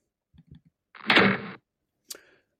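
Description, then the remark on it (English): A door closes: a few soft shuffling knocks, then a loud broad whoosh of the door swinging, and a sharp latch click that rings briefly. No voices. “Come on in, close the door behind you.”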